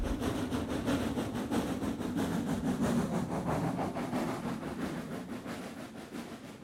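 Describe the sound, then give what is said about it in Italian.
A train rolls steadily along the rails, a continuous low rumble with rhythmic clatter from the wheels, loud, easing off slightly toward the end. “Li ho sempre visti passare, i treni, avanti e indietro, avanti e indietro.”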